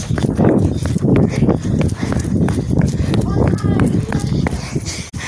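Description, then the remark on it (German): Quick, rhythmic footsteps patter across hard pavement as someone runs across a street, the steps steady throughout, with voices talking over them. “Okay, über die Straße. Gucken, gucken, gucken.”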